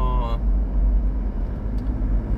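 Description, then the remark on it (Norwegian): A bus drives through a roundabout, taking the bend a little too wide. Its engine is a loud, steady low rumble throughout, with a brief higher-pitched whine at the very start. “Når det er en buss i rundkjøring som tok litt for slake sving, så han må”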